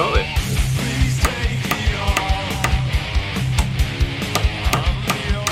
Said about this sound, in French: ce que vous entendez, c'est le bruit euh, que fait un micro Shure SM58 en train d'enfoncer un clou. Un studio de musique allemand s'est amusé à faire subir des tests à ce micro pour voir s'il marchait toujours bien.